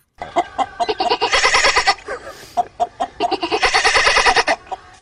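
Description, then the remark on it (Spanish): A man's voice mimics a goat as a sound in a guessing game, letting out two long, wavering, nasal bleats with stuttering onsets, loud and strongly vibrato, separated by a brief pause. “Eso es el tipo, el tipo haciendo de... De, de, gallareta suena. Sí. ¿Qué es eso? De, de, de chiva.”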